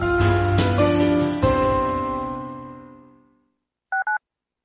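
A sustained musical chord rings out and fades to silence, then two quick telephone keypad tones beep in succession, clear, in a radio advert for Mazapanes Barroso.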